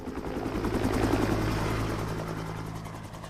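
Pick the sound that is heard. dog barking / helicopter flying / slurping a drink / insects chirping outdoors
helicopter flying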